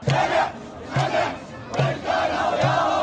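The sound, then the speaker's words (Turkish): A large crowd of anti-government protesters in Tahrir Square, Baghdad, Iraq, chants and shouts in loud, rhythmic bursts, roughly four strong surges of massed voices over about three seconds, with a constant roar of many people underneath. “Irak'ta hükümet karşıtı protestoların fitili yeniden ateşlendi. Göstericiler Bağdat'ta bir araya geldi.”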